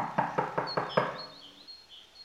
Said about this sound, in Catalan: Gripera va anar corrents pel corriol que duia a casa d'en Gripau i va picar la porta.